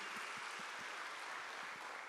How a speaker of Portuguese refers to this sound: Eu pedi, peço que vocês deem um aplauso aí para eles, né?